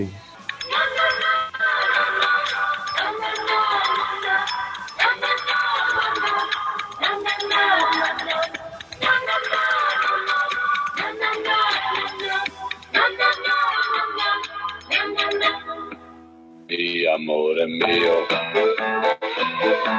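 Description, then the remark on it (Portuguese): A song plays loudly and continuously, a voice singing the same short chorus line over and over atop bright, steady instrumentation, with a brief dip before the music surges back. “A música é só isso.”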